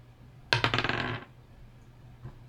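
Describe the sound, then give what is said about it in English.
Dice are rolled for a precision roll, landing on an eight, clattering across a hard surface in a quick burst of rattling clicks, settling after under a second, followed by one faint tap. No voices. “Um, I'm gonna have you give me a precision roll for trying to find these objects.”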